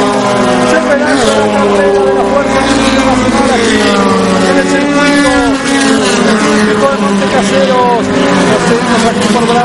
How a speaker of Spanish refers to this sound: Todo listo, se va a relanzar, empiezan a acelerar los autos.